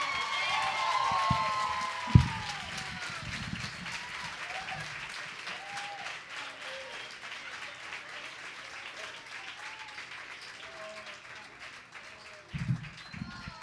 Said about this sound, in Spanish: Un aplauso